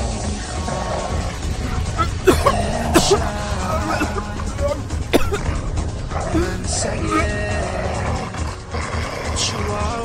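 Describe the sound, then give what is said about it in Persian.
A dog, Cerberus, agitated by music being played, barks in a few sharp bursts and whimpers in between, over a dense, rumbling background with some voice-like sounds mixed in. “آروم باش سگ خوب چیزی نیست”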